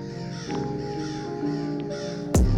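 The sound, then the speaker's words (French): A crow caws harshly over a steady tonal backdrop, with a sharp, loud caw bursting out near the end. No one speaks. “J'entends le corbeau qui chante trop bec”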